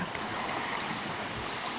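A boat moving over open water, with steady rushing spray and churning waves filling the whole short stretch. The sound is close, fairly loud, and there are no voices.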